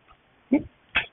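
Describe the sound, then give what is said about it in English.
Two quick snorts from a dog, each a short noisy burst about half a second apart, during a thunderstorm with a tornado, with near silence around them and no talking. “the dog's chilling.”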